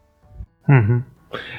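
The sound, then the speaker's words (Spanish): A single sneeze: a short voiced intake rising into a breathy "ah" sound, then a sharp hissing burst of air at the end. “Jesús.”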